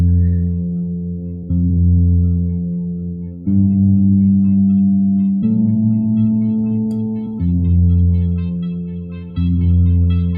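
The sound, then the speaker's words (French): A Memory Moog synthesizer plugin plays sustained, buzzy analog-style chords that change every couple of seconds, thick and rich in harmonics, with a brief high blip near the start and no talking. “Donc si vous êtes euh, fan de Moog, et que vous voulez euh, un memory moog dans un plugin, bon, bah, vous pouvez le tester.”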